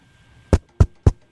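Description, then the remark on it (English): Three firm knocks on a door, evenly spaced, each sharp and solid, with nothing else but a faint steady hum in the background. “that's a cat knocking on your door, which I hope you heard.”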